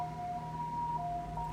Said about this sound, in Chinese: 救护车的声音，好，救护车过了。